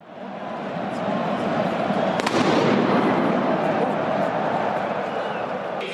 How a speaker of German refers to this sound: Im Moment ist Schweigen hier im Stadion, weil gerade ein riesiger Knaller hochgegangen ist. Wir sind alle zusammengezuckt. Das Spiel ist sofort unterbrochen werden. Es ist aus der Kölner Südkurve etwas gezündet worden. Alle sind zusammengezuckt.